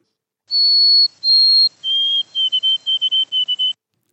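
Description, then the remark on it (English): A male songbird sings its classic triplet-ending song: two long, pure high whistled notes, then a drop to a slightly lower pitch for a quick run of short notes grouped in threes, clear with no other sounds. “the males will sing that variable number of times that's the classic triplet ending song and you've actually sent me some recordings of that.”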